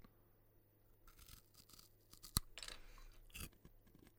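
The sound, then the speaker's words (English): Crisp crunching as someone chews popcorn normally, with irregular bursts of munching and one sharp snap partway through. Quiet overall, no talking. “Normal chewing. Here we go. This is me.”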